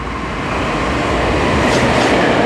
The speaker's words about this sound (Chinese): 哦，不是哎，不是，不是我们要坐的区间车的，是有一台自强号经过。对。所以就还要继续等下去，所以我的区间车还没到这样子。